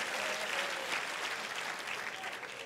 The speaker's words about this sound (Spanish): Dele fuerte ese aplauso al Señor. Ay, Padre. Gloria a Dios.